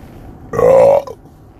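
A single loud burp, a protein belch in the morning, lasting about half a second, with a steady croaky tone, followed by a faint trailing breath in otherwise quiet surroundings.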